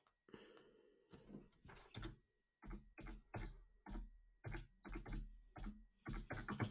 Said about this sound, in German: Ihr hört das Klicken.